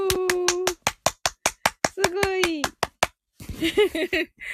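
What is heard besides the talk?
audience applause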